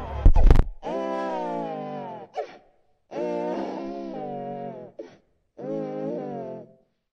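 baby crying

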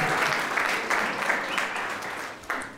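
audience applauding and cheering

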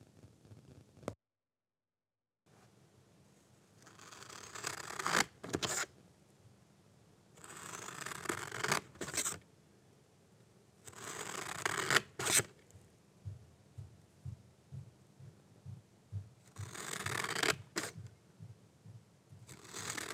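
scissors cutting paper

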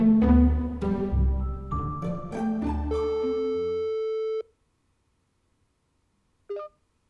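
telephone ringing tone

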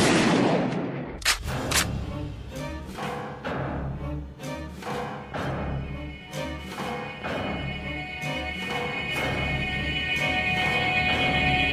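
revolver gunshots

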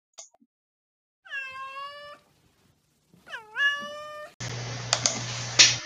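cat meowing

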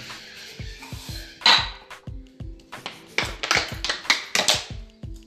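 washing dishes

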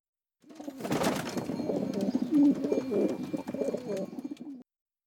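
pigeons cooing

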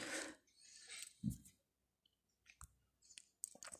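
clicking on a computer

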